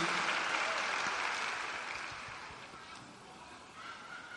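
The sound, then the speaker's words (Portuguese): A crowd applauds the Lord, clapping steadily in a dense, continuous wash of applause that holds strong at first and gradually eases slightly toward the end, with no talking over it. “Aplauda o Senhor e queira para você isso.”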